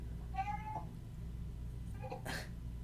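A cat meows twice, a drawn-out cry near the start and a second, higher, more strained meow about two seconds later, fairly close over a steady low background hum.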